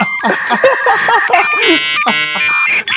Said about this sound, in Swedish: Ta bort Aha. det jävla modemljudet.